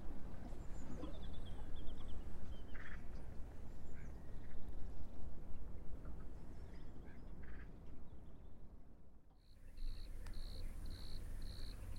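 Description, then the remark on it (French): Scattered brief bird calls rise over a steady rumbling outdoor wash of water lapping against the side of a boat with its engine cut, in the Pays d'Ancenis. Later, a quick, regular chirping pulses repeatedly against the background. “Alors là on entend quoi Un peu des oiseaux, puis l'eau, l'eau qui tape contre la côte du bateau au loin.”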